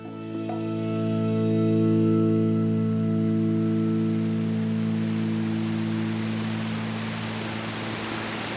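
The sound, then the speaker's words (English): Water pours steadily from the spouts in the square of Pasarón, in the La Vera region, a continuous splashing hiss that holds for the whole stretch, with a low steady hum underneath and no voices. “One of the symbols of Pasarón, as in the entire La Vera region, is water, which can be seen flowing through the streets or coming out of the spouts in the square itself.”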